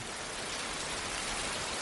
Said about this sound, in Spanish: La lluvia moja un cristal.